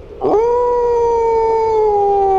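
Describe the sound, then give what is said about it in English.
A single sustained wolf howl, rising sharply then holding a long, steady tone that slowly sinks in pitch, loud and clear with no other sounds around it. “Here there is precious little succor for the wretched wolves that eke out a lean and hungry life.”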